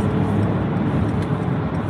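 A car engine rumbles loudly and steadily as the car accelerates while merging, a dense low roar with road noise that holds constant for the full two seconds; no voices are heard.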